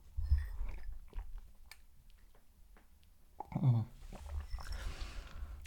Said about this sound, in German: Ich trinke jetzt noch einen Schluck Tee, der schon fast kalt ist.